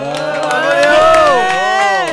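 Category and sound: crowd, audience applauding and cheering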